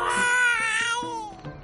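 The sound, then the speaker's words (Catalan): Two young children bawling and screaming in a loud, sustained, high-pitched wail that drops in pitch toward the end, continuous with no talking. “Estem parlant de dues criatures berrejant, cridant l'altre.”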